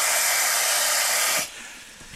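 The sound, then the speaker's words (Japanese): Water pours into a pot, to be boiled for spaghetti, in a steady, bright rushing hiss for about a second and a half, then cuts off abruptly, leaving only faint quiet. No one speaks. “水水を入れる音から水を入れる音から”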